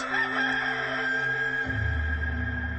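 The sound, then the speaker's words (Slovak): A rooster crows once in a long, drawn-out cock-a-doodle-doo, loud, with a low rumbling drone rising underneath as the call fades. “Peter Ježiša znova zaprel. a v tom zaspieval kohút.”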